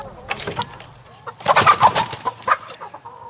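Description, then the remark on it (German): A chicken clucks in a quick, irregular series of short calls, growing louder and busier toward the middle before trailing off, clear with no talking. “Sechs Hammer und Nagel, Kies am Rheinufer oder ein Huhn.”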